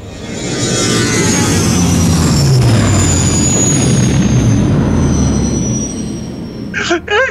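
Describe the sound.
A spaceship takes off with a loud, sustained engine roar and sweeping whines that build for several seconds, then cuts off as a voice briefly gasps at the very end.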